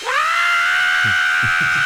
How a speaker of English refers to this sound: That's a great act break. I love that scream, and also like the rippling scream of mouth of uh, of Fry.